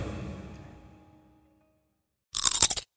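A single loud, crisp crunch of someone biting into a Fruneck (푸르넥) fruit snack, lasting about half a second, coming after a fading musical tone and a stretch of silence.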